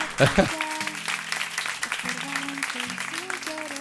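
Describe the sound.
A crowd at the Jarro Café in Madrid claps steadily for a few seconds on a Sunday afternoon close to Christmas, applauding a person who passed a box; a dense patter of many hands, with a short burst of voices at the start and murmuring and cheering mixed in.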